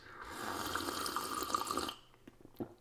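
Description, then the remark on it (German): Freshly tapped caffeinated apple spritzer is poured steadily into a small cup for about two seconds, the splashing pitch climbing as it fills, followed by a few faint drips and a small clink. “nach einem frisch gezapften Tässchen koffeinhaltiger Apfelschorle.”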